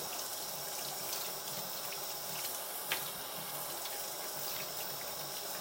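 Tap water runs steadily into a sink as dishes are rinsed of detergent, a continuous bright splashing hiss with a few faint clinks of crockery and one sharper knock partway through. No one speaks.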